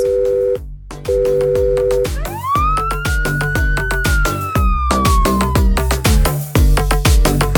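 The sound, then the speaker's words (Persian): An ambulance siren tone holds steady, breaks briefly, then sweeps upward and slowly wails down, sounding loud over a steady, pounding rhythmic beat, with no talking. “آقا یکی زنگ بزنه به آمبولانس”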